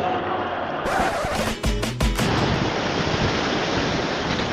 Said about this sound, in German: Doch aufgepasst, hier kommt keine Laola-Welle, hier kommt die perfekte Welle vom Atlantik. Ich bin, ich bin im sündhaft schönen Cadiz.